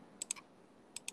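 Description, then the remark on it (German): Four crisp keyboard clicks in two quick pairs, fairly quiet, with a short pause between the pairs and no one speaking, as someone types in the vehicle model Magirus M34 LAT. “Gib das mal ein”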